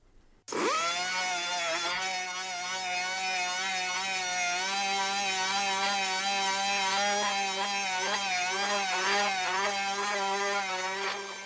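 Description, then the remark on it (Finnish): A high, steady mechanical whine of a dentist's drill from 1958, running continuously with slight pitch wavering, no voices present. “Se oli hammaslääkärin pora vuodelta 1958 ja se ei varmaan hirveästi ole muuttunut.”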